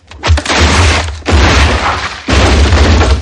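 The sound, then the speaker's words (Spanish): A loud crash of a collapsing stable, three heavy, booming impacts about a second apart, each followed by a sustained rumbling roar of falling debris, with no voices. “Atos se detiene al oír el estruendo. ¿Qué ha sido eso?”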